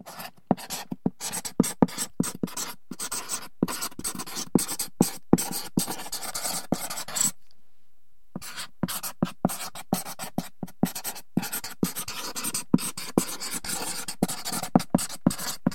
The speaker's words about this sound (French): Les crayons, avec ce doux frottement de la mine sur le papier.